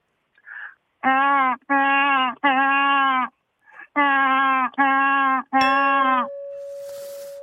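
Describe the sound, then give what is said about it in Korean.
A person's voice imitates a newborn baby crying as part of an impressions contest: a series of loud, sustained wails in quick bursts, with short breaths between, ending in a faint hiss. “아기 우는 소리 하겠습니다. 깐난 아기.”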